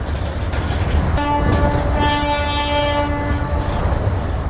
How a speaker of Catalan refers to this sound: Avui, un tren que transporta productes agroalimentaris des del port de Tarragona fins a Saragossa i que equival a 35 camions.